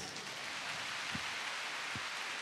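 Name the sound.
audience applause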